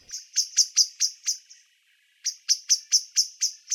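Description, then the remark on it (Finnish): A Eurasian blackbird's nervous alarm call: sharp, metallic chinking notes repeated rapidly in two bursts, about six then eight calls, separated by a short pause, clear with no voices. “mustarastaan hermostunut varoituskilkatus”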